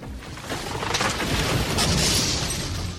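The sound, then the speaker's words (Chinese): A heavy stone door grinds open with a deep, continuous rumble and gritty scraping that holds steady and loud for about three seconds, with no voices. “大石门果然开了，阿里巴巴很兴奋地跑进去。”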